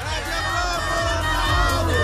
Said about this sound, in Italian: Ragazzi, urliamo Radio Globo e Romanauto, tutti insieme al mio tre. Uno, due, tre!